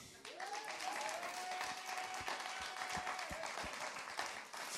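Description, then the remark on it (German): A crowd at an ICF church gathering in the Rhine Valley, Austria, applauds a pastor from ICF St. Gallen steadily, dense clapping at a fairly loud, sustained level, with a faint whistle-like tone rising briefly near the start. “und du hast uns dann so über die Grenze, über den Jordan geschickt, gell, zum hier ICF gründen und also er ist schuld, dass wir hier sind, ein Applaus.”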